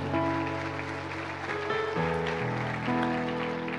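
A church audience applauds the Lord, a dense continuous patter of clapping, layered over sustained keyboard chords that shift a few times. No one speaks.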